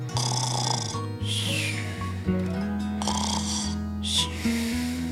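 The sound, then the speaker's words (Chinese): Loud, deep snoring of a wolf asleep under a big tree, with a rough, growly rumble, repeating in quick rhythmic breaths about once a second, with snorting edges and no talking. “这个呼噜声让旁边的树枝都不断的发抖。”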